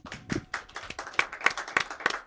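A small audience claps for a couple of seconds: scattered, uneven claps at first that settle into a steadier beat of sharp, bright hand claps, with no one speaking.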